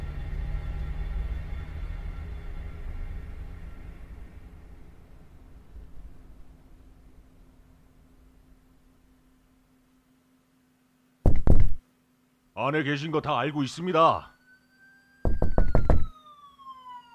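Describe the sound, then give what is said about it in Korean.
Loud, heavy pounding on a door by police comes in two short bursts a few seconds apart, with a man's raised voice shouting "Open the door!" between them, after a long fading rumble and a stretch of silence. “문을 두드리며 고래고래 소리를 지르는 경찰들의 목소리를 듣자 머리가 지끈거려 왔다.”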